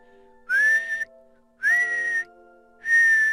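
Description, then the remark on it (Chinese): Three short blasts on a copper whistle blown lightly, each a bright, steady high tone that slides up slightly at the start, separated by brief pauses, with no voices. “一天，小老鼠捡到一只铜哨子，轻轻地吹了几下，”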